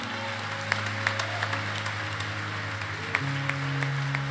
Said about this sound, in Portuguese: Vamos aplaudir ao Senhor, igreja, por essas pessoas que fizeram essa oração.